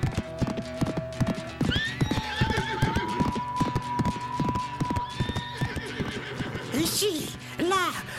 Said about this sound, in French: Il grimpe sur Brony, le beau cheval de notre lutin, qui se lance aussitôt au triple galop à travers les arbres de la forêt.